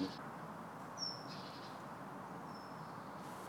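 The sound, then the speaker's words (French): Great tit contact calls, not song: a few short, thin, high-pitched notes, one bird answered by another, come faintly, spaced apart over a steady hiss of outdoor background noise. “Mais ça, c'est juste des cris de contact, c'est pas des chants.”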